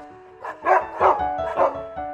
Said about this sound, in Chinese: 哈克正想从旁边绕过去，避开屋里人的视线，但这时一大群狗突然跳了出来，凶狠地朝他狂吠不已。